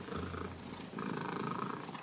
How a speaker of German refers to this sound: Äußerlich finde ich sie zwar eine recht durchschnittliche Katze, aber was aus ihr herauskommt, macht sie zu etwas sehr Besonderem. Ihr Schnurren. Das ist nämlich sehr, sehr laut.